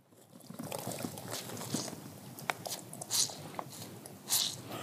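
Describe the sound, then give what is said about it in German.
Wet, squelchy crackling as soggy peat moss is squeezed by hand like a sponge and water is pressed out, a continuous rustle with two sharper hissing spurts near the end. “Und wenn ich das jetzt nehme in meiner Hand und drücke,”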